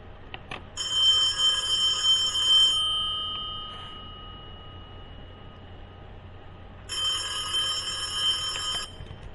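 A telephone rings at a nursing home office with a call about a newspaper job advertisement, in two bursts, each a bright, rapidly trilling electronic bell lasting about two seconds, separated by a pause of several seconds. Clear, with no voices.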